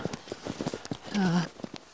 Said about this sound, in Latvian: Un, mēs brienam mazliet pa sniegu.